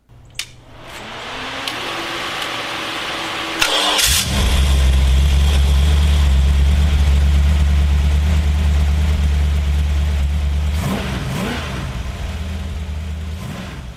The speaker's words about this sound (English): Let the uh, not so dulcet tones of a uh, Hemi engine sat in a 1956 Chrysler uh, play us out. I don't know, roar us out, chug us out, like, well us out.